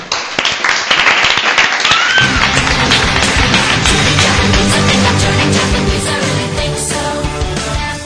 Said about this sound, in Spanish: Te despedimos con este fuerte aplauso.